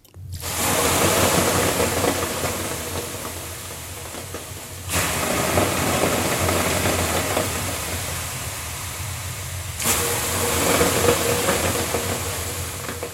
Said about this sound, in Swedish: Det där är alltså en bastu, det lät kanske lite som att man skulle vara på vässan i ett åskväder.